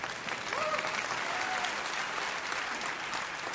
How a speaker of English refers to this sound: Don't ever think that God can't use you. Amen? You should clap. Come on, come on, come on. Let's clap for